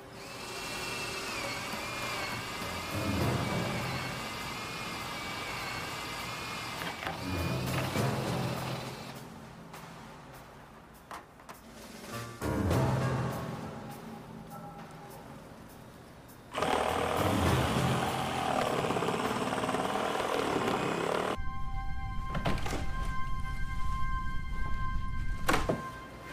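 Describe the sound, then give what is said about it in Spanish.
An electric saw and a cordless drill with noise-reducing motors cut into the roof of a downtown bank in bursts, whirring and grinding, pausing between passes. A louder, steady stretch with a high motor whine closes it out. No voices. “Llevaba una sierra eléctrica y un taladro inalámbrico de primera línea con motores especiales que reducían el ruido.”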